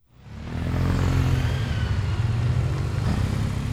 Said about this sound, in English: The parking lot is filling up with motorcycles, not a typical sight for Saturday morning.